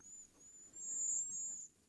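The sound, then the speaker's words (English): Thin, very high-pitched calls of two cedar waxwings, soft, running almost continuously as sibilant trilled whistles that swell briefly in the middle, with no voices present. “That so, that sounds like a a happy nestling couple of cedar waxwings.”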